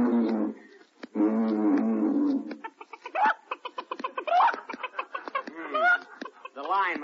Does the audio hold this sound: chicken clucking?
yes